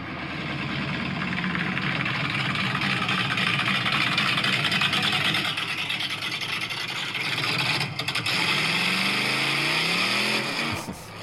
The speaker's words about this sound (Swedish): Denna motorn har jag byggt alldeles själv. Det är fan sjukt.